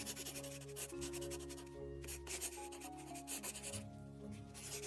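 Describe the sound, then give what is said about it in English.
Pencils scratch steadily across paper in quick, repeated strokes, fairly quiet, with soft sustained music playing underneath and no one talking; students in an art class drawing a young woman who is posing for them. “All right, students, pencils down.”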